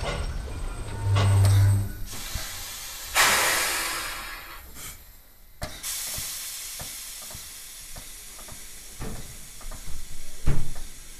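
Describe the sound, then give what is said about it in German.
A steam train draws to a stop in the middle of a large clearing, with a low rumble, a loud broad hiss of released steam, then scattered metallic clanks and knocks as it settles, with no talking. “Oktobers, wenn ich das einfügen darf, blieb der Zug überraschenderweise mitten auf einer großen Lichtung stehen.”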